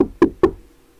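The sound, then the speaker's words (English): A woman knocks on a table three times, quick and evenly spaced, fairly loud, each a sharp rap that dies away fast, followed by quiet. No one speaks. “Our dog just lost it because she knocked on the table.”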